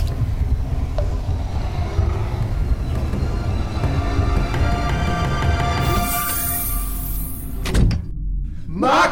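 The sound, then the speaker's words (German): A heavy, guarded door slowly slides open with a steady low rumble and faint grinding tones, ending in a brief rushing hiss and a dull thump near the close. “Die Tür öffnet sich langsam.”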